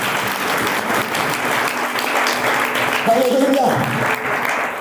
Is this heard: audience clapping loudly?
yes